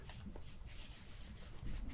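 Soft rubbing as an alcohol pad is wiped back and forth across skin after a stinger is removed, a steady quiet friction that swells slightly toward the end, with no one speaking.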